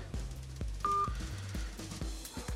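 A phone's incoming-call tone sounds once as a short, bright electronic beep, over a steady low, rhythmic background hum with no voices.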